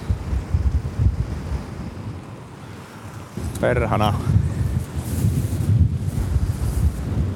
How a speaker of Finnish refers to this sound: On kova tuuli.